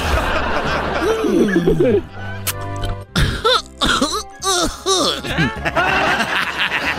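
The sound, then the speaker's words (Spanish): Someone in a Barney dinosaur costume, smoking marijuana, coughs and clears their throat in several rough bursts, mixed with snickering and chuckling, with a busy background of voices and sound underneath. “Pues es Barney tosiendo, güey, pero marihuana sí.”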